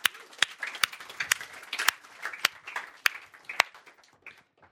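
An audience applauds for about five seconds, a dense patter of many hands clapping with a few sharper, louder claps standing out, then tapering off toward the end. No one speaks.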